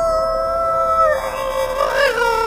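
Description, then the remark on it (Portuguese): A voice imitates the howl of a robotic coyote walking between hangars: a loud, sustained, steady tone that turns wavering and unstable midway, its pitch wobbling and briefly rising before it settles again, with no talk. “Vem do corredor de, é, de pistas entre os hangares, caminhando pra vocês, e de repente ele levanta o pescoço e uiva.”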